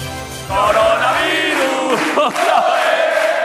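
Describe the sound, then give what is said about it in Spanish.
A loud stadium crowd of about 3,000 Atlético de Madrid football fans erupts in sustained cheering and shouting as the players celebrate, a dense roar of many voices with rising chant-like tones, continuing steadily throughout. “Ahí están los jugadores celebrando y los 3.000, Paco, del Atlético de Madrid, 3.000 valientes que han desafiado a la prudencia”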